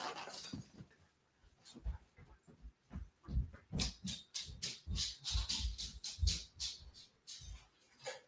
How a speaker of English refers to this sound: I do apologize. I've never had to do that before, but my dog was going absolutely crazy.